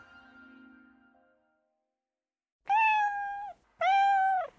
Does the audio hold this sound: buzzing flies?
no